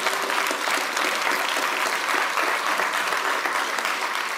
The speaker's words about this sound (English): Clap once if you receive it.